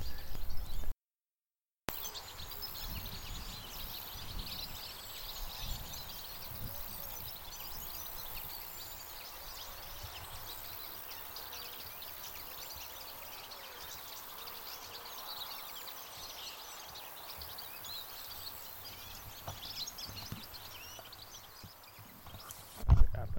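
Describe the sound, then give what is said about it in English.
A large flock of goldfinches twitters continuously outdoors, many overlapping tinkling calls blending into a steady chatter, with a brief break near the start and a louder flurry at the very end as a large part of the flock flies off. “The sound of a flock of finches.”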